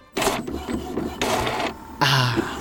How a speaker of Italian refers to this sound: Ma decido di non pensarci, arrivo a casa, monto le testine sulla stampante e lancio finalmente la stampa.